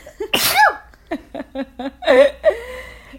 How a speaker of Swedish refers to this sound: Prosit!